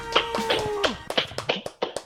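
A few scattered hand claps ring out in an uneven rhythm, sharp, welcoming two guests onto a show, with a short sustained musical tone sounding underneath at the start.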